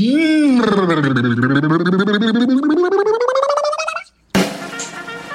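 A voice imitates a snare drum roll with a rolling, rattling trill that dips in pitch, then climbs steadily for about four seconds before cutting off, followed by a brief burst of noise.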